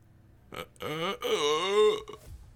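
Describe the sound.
A weak, raspy croak drawn out over about a second and a half, wavering in pitch before trailing off, like a voice imitating the dying gasp of a tiny, shriveled, frog-like creature lying on the floor.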